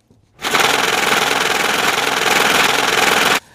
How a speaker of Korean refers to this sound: 이게 무슨 소리 같아요? 이게 현금 세는 소리랍니다.